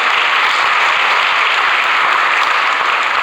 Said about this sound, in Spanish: Porque la palabra de Dios tiene poder. Si se lo va a dar al Señor, déselo bien ese aplauso.